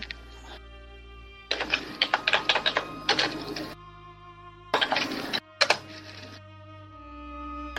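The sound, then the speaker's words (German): Dice rattle and clatter across a hard surface in a long burst of rapid clicks, followed by two shorter tumbling bursts, with a steady tonal hum underneath; the dice are rolled for an investigation check in a tabletop role-playing game. “Soll ich da würfeln? Ja, auf Investigation bitte.”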